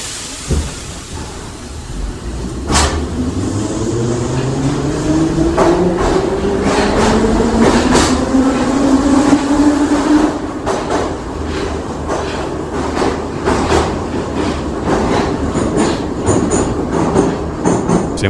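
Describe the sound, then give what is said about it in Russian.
A metro train, next stop Uralskaya station, pulls away after the doors close and runs: a loud, steady rumble with an electric motor whine that climbs in pitch as it speeds up, punctuated by sharp clicks and clacks of the wheels. “Осторожно, двери закрываются. Следующая станция Уральская.”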